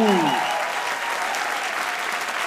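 A crowd breaks into steady, sustained applause, a dense wash of many hands clapping at an even loudness, with a brief tonal musical sting at the very start.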